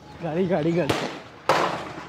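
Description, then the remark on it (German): Two sharp, loud gunshots ring out about half a second apart, each a sudden crack with a trailing rumble, following a raised, wavering human voice. Recorded on a mobile phone video at an Australian refugee camp in Papua New Guinea; the official version says soldiers fired into the air. “Angeblich hatten Soldaten des Inselstaates lediglich in die Luft geschossen, so die Behördenversion.”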